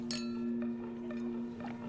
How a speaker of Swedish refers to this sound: Ja, ska vi skåla till någonting då? Ja, jag tycker vi skålar till vår resa. Ja, men det tycker jag också. Mm. Skål! Skål.